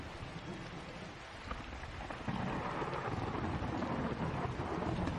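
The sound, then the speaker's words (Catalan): Heavy rain pours down in a steady, dense hiss, swelling louder partway through, while low rumbles of thunder roll underneath during a thunderstorm with lightning. “Es van succeint llamps i trons i la pluja esdevé una cortina d'aigua cada cop més sorollosa.”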